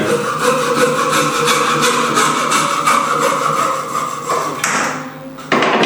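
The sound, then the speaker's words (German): A hand saw cuts a piece exactly 20 cm long off a pipe with steady, rapid back-and-forth strokes, loud, rasping continuously before a brief lull and a final burst of sawing. “Und jetzt habe ich ein Rohr abgeschnitten, das genau 20 cm hat.”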